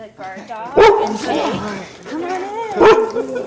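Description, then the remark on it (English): Dogs bark in the production room at Ruffwear, a maker of outdoor dog gear, as a stranger walks in with a microphone: two loud, sharp barks about two seconds apart, with excited whining and yipping filling the gaps between them. “This is what it sounds like in the production room at Ruffwear, Or at least what it sounds like when a stranger like me walks in with a microphone.”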